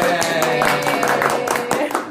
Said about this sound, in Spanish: Pero este es el programa número uno. programa número uno. Programa número uno, así que un aplauso para ustedes. Venga.